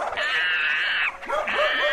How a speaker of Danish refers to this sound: nu slås rotten med hunden igen